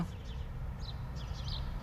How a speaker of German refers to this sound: Ich lausche gerade mal aus meinem Wohnzimmerfenster. Die Vögel im Garten, im Hintergrund rauscht die Straße.